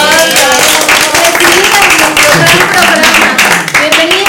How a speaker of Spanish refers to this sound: Así que bienvenidos a todos. Un aplauso, por favor